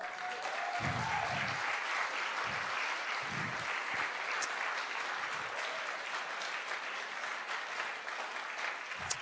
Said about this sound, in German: Seid ihr da? Lass uns mal Gott einen riesengroßen Applaus geben. Come on.